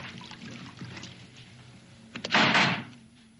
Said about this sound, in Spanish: La puerta. Cierra ya la puerta.